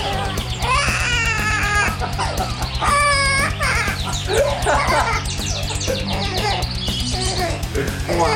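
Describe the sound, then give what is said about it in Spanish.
A 64-year-old parrot imitates a crying baby with a series of loud wailing cries and whimpers, rising and falling in pitch, over a steady low backing track. “este curioso animalito que a sus nada más y nada menos 64 años de edad es capaz de llorar como un bebé”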